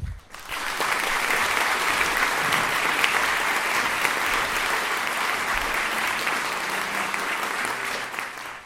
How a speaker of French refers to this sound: Je vous prie d'applaudir